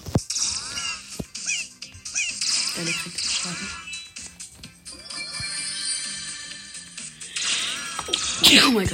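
A single sharp, loud sneeze bursts out near the end over a busy backdrop of electronic game sounds and music.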